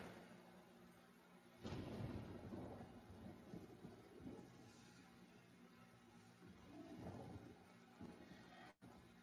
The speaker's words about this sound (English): It's raining, kid. Get the fuck out of there.